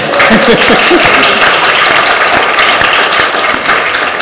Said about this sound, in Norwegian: Eh, vi avbryter da, men skal vi klappe litt for